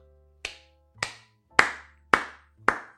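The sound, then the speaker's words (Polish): Five slow, deliberate hand claps spaced evenly about half a second apart, sharp, with no voices, a sarcastic slow clap. “No naprawdę brawo.”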